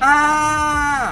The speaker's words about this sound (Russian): Раздался крик. Но этот крик был уже не от Дэш, а от Эпплджек. Она тоже исчезла.